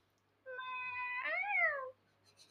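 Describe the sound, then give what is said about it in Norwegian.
A person imitates how a Christian cat meows: one drawn-out, clear call lasting over a second, holding steady and then bending up and down in pitch before stopping. No talking. “Hvordan er det en kristen katt mjauer?”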